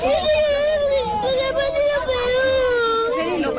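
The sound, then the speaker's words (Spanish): A boy wails and sobs in a long, high, wavering cry that barely pauses for breath, loud, with a faint murmur of other noise behind it. He is a Peruvian fan crying and unable to speak after Peru's 3–4 home defeat. “La sensación de todos los peruanos, él está llorando.”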